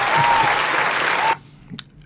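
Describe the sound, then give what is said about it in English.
Loud audience applause for an actor guest fills the first second and a quarter, a dense wash of clapping that cuts off abruptly, leaving near silence with a faint brief noise afterward. “Oh, sorry that I cut your applause short.”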